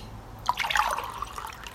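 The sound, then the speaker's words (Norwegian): Water splashes and trickles into a glass for about a second, a bright pouring sound that starts abruptly and then tapers off quietly. “Trenger du vann? Ja, takk.”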